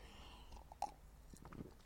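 A quiet sip of water: a brief wet gulp with a soft click, followed by faint mouth and swallowing noises against low background hum. No talking.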